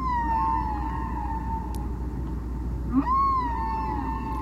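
Long, sliding tonal moans from a humpback whale in the middle of the ocean, two drawn-out calls rising and falling with rich harmonics over a steady low underwater rumble, with no voices.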